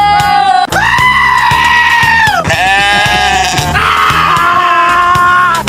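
A goat bleats loudly, letting out a series of about four long, wavering, scream-like cries one after another, with no talking.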